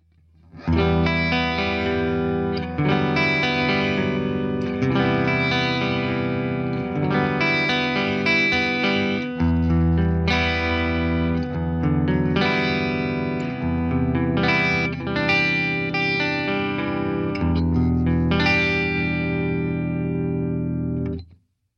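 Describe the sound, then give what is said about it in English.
A clean electric guitar plays strummed chords and arpeggios through an amp's classic gain channel in clean mode for about twenty seconds, bright and shimmering with a touch of chorus and reverb, steady and fairly loud with no talking. “So here's what the clean channel sounds like.”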